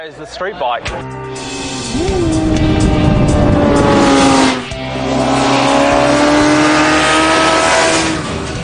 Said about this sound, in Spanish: La motocicleta de carreras cruza la línea de meta y luego, uno, dos, tres, ya pasó la moto de ciudad.